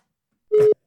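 A single short burst of a telephone ringing tone on an outgoing call: a steady, mid-pitched electronic hum lasting about a quarter second, loud and alone with no talking.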